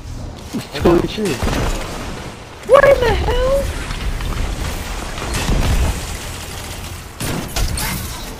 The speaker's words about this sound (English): Hey, you're shooting everywhere. I'm mean, positive he's just shooting everything.